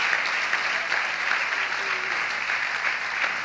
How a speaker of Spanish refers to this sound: Amén y amén. Dale un aplauso ahí fuerte al Señor.